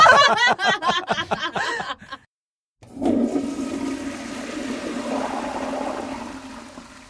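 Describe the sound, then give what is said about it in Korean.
A burst of chuckling laughter, a brief silence, then a toilet flushes with a loud, sustained rush of water that continues steadily for several seconds. “어, 저는 이 타이밍에서 화장실 좀.”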